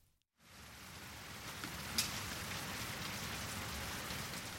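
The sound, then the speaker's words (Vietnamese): Steady rain pours down on a mountainside in Korea on a late autumn day after a brief moment of silence, a dense, even hiss of drops hitting surfaces that continues without a break, fairly loud, with no voices. “Ông So đi từ Cang Nưng tới Chu Mun Jin thì bị mắc mưa ở một góc núi”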